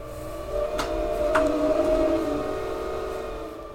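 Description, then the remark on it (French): Wind blowing in the Grenoble valley with a steady, tonal howl that swells slightly and then eases, sustained for several seconds with a couple of faint clicks and no voices. “Vous avez entendu le vent là Ça fait.”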